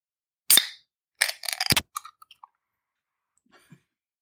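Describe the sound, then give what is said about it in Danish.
A New England IPA beer bottle or can is opened: a sharp, bright pop with a brief hiss, followed by a rapid cluster of crackling clicks and a few faint ticks trailing off. No one speaks. “Jeg åbner også lige.”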